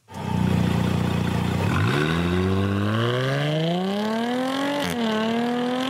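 A Jaguar F-Type sports car engine roars loudly, first a steady low rumble, then climbing steadily in pitch as it accelerates, with a brief dip like a gear change before rising again. No voices.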